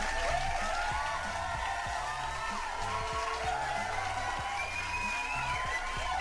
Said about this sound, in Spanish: Quiero hablarles de una elfa pelirroja fantástica. Ella es, ni más ni menos que Didi Lin. Un pinche aplauso.